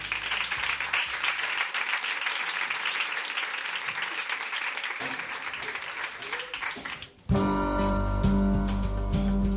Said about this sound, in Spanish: Un aplauso para ellos, va.